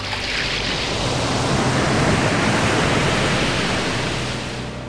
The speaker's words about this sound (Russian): Государь идет по берегу реки. Сильное волнение воды. Волны все прибывают и прибывают.